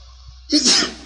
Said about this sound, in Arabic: رحمك الله